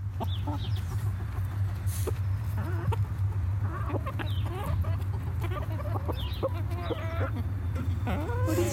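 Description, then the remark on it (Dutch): A rooster named Teuntje clucks in quick, repeated bursts of short tuk-tuk calls after finding a piece of endive, telling his hens there is food, over a steady low hum with other birds chirping faintly in the background. “op het moment dat een haan iets lekkers heeft gevonden, gaat hij middels tokkende geluidjes aan zijn vrouwen vertellen dat er iets lekkers voor hem is”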